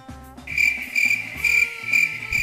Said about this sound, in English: Crickets. I'm gonna insert crickets right